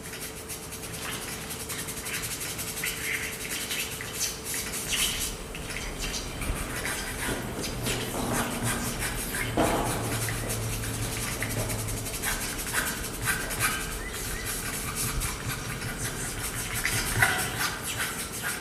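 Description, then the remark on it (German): Crawling and scratching sound effects standing for the character Jakob, an experienced jungle fighter: a dense, continuous rustle of scraping and skittering at a steady level for the whole clip, over a faint low hum, with no voices. “Er steht für dieses Krabbeln und Kratzen.”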